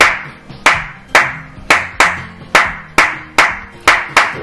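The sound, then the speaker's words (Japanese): Sharp hand claps, recorded to be arranged into a rhythm for music, repeat in a steady rhythm, about nine crisp slaps spaced roughly half a second apart, each with a short ringing decay, loud with no voices. “パンというのを録音したやつを並べていくということですよね、リズムにしてしまえば、でそれまたこう複雑に組み合わせたりとか、うんすれば音楽になっちゃうね”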